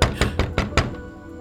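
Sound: knocking on a door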